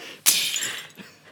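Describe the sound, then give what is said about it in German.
A sudden, loud crash of shattering glass, with a bright burst of breaking shards that rings out and fades over about half a second, followed by a faint late tinkle. “ich muss hier irgendwie so ein, so ein Zerbrechen reinschneiden, das gerade was in mir zerbrochen ist.”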